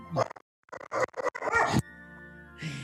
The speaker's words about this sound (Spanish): Ladra un perro eh, fuertemente cerca de las.